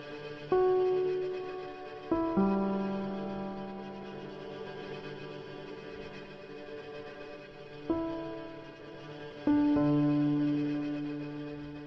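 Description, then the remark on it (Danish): Droning ambient film score of long, sustained reverberant tones, with a new low chord swelling in every few seconds over a soft, steady hiss of white noise; no one speaks. “Men ellers er det faktisk bare sådan noget rumle-rumle, hvid støj.”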